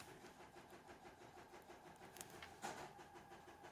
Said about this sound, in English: I was hearing a weird noise. It's my wife's using a sewing machine in the other room.